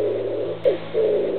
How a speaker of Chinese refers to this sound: 他就这么样样不乐地发呆了好久好久，边听着窗外一会儿有风呼呼吹过，一会儿有狗儿凄惨嚎叫，一会儿又有猫头鹰咕咕傻笑。